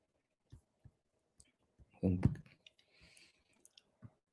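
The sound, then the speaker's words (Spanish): Several crisp computer mouse clicks, fairly quiet, land at irregular intervals while topics are reordered in Google Classroom, with a brief muffled burst of low sound partway through. “Una de las también adecuaciones que se ha hecho con Google Classroom es que ya nos facilita el poder ordenar los temas dándole un clic.”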